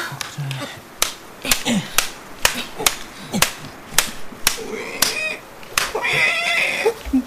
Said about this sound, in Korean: 뭔 소리래? 가만, 저기 길 위에 저게 내는 소리 같은데? 어? 조그만한 게 낑낑대는 거 보니까 음, 강아지인가? 강아지는 아닌 것 같은데? 그럼 뭔데? 가만, 아, 저거... 뭔데 그래? 새끼 멧돼지야.